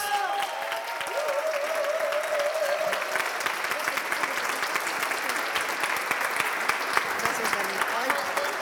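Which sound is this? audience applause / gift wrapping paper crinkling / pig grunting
audience applause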